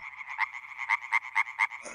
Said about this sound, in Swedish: Ja, jag började i Fältbiologerna och eh, vi hade sommarstuga på Österlen. Så att eh, från stugan kunde man höra lövgronorna.